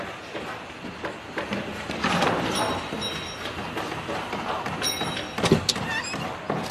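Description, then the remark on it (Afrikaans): A wooden desk drawer slides open with a rough scrape as a phone is put back inside, then knocks shut near the end, moderately loud amid soft rustling handling noise. “Ek moet seker terugsit in die lesenaar se laai.”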